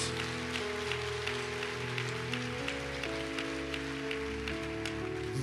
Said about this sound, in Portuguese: Se você recebe, dê o seu melhor aplauso ao Jesus.